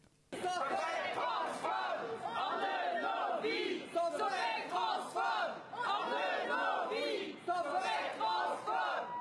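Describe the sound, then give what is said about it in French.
A crowd of protesters chants loudly in unison outside the Pitié-Salpêtrière hospital, voices rising and falling in a steady rhythmic slogan that repeats throughout, sustained, with a dense wall of shouting. “le collectif So Infect a mené en amont de l'existence une action devant l'hôpital de la Pitié-Salpêtrière pour protester contre les pratiques de la SOFECT.”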